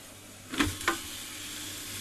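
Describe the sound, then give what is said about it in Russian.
Onion and garlic sizzle steadily in a pot, a constant hiss broken by two brief scraping knocks of stirring. No one speaks. “Лук прям жарится вместе с чесночком, как это интересно, а?”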